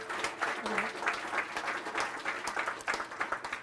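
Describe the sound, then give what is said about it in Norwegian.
Audience applause after a talk, before questions from the audience: a steady wash of many hands clapping at moderate volume for a few seconds. “Først applaus, og så et spørsmål eller to.”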